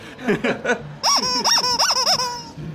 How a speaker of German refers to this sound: kannst du jetzt quietschen, komm.